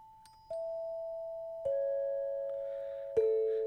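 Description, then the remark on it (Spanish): A radio station identification chime: three bell-like notes struck about a second apart, stepping downward in pitch, each ringing on and overlapping the next. Clear, with no voices. “Eh, con cómo con casi los mismos timbres hacían cualquier cantidad de identificaciones.”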